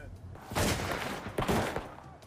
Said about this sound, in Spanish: Mientras continuaban los disparos, un agente del alguacil del condado de Johnson se dirigió hacia el auto de los sospechosos